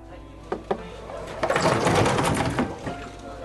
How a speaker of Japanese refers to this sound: ガラッと居酒屋のドアの開く音がした。